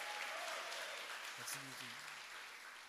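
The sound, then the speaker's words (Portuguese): A church audience applauds the Lord steadily, a dense wash of many hands clapping at once, with a brief voice or tone rising underneath partway through. “Quem acredita, dê um aplauso ao Senhor e glorifique a Deus.”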